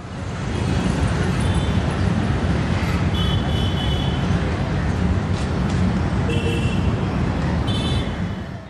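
Dense traffic noise in the center of a large city: a steady roar of cars and engines with brief higher tones like horns or brakes, and faint murmuring voices mixed into the continuous street din.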